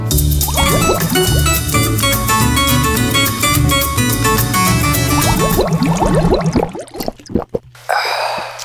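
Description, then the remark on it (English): An ice-cold drink is poured from a plastic bottle in a break room with steady glugging, then a few swallows and a loud, breathy gasp of satisfaction at the end. “And drink an ice cold, refreshing beverage.”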